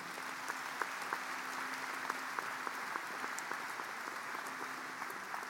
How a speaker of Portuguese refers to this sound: Quem pode dar um aplauso ao Senhor Jesus nessa manhã?